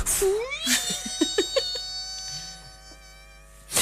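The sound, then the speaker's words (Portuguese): A voice imitates an old valve television warming up after its button is pressed: a rising, whistling whine that climbs in pitch and holds steady for a few seconds, fairly loud, with soft breathy sputters early on. “Carregava-se no botão, começava a ouvir-se um som, algo algures entre o apito para chamar quem Exato.”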